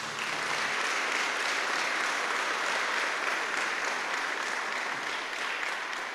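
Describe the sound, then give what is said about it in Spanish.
A church audience applauds the Lord Jesus steadily, a dense wash of many hands clapping at once, loud and sustained from start to finish with no pauses. “Damos un fuerte aplauso al Señor Jesús.”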